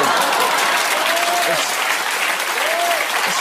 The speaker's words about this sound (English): And his dumb audience claps bunch of uh, NPCs. Unbelievable.